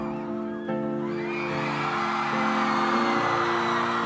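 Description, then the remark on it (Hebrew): A large concert crowd at a small live show in Amman, Jordan, cheers and whoops continuously, a loud, dense roar of many voices with sustained tonal singing or shouting layered through it, swelling slightly louder toward the end. “תראו מה זה קהל מכל העולם, ומה זה חיבור ומה זה אינטימיות של להקה שמופיעה על הבמות הגדולות באמת.”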